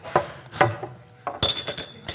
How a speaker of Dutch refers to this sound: en dan je mes en vork en dan, en dan moest je op.